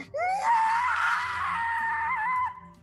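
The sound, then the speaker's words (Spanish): A long, piercing scream from a witch engulfed by a whirlwind of fire rises sharply and holds at a high, strained pitch for over two seconds before trailing off, loud with a low rumble underneath. “Eh, sale el fuego como una especie como de, remolino de fuego que, que, que, cubre a la bruja de Fish y nada más escuchas un grito horrible, ¿no?”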